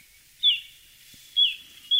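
A little ringed plover calls three times, each note a clear, high, downward-slurred whistle, with short gaps between the calls and no other sounds.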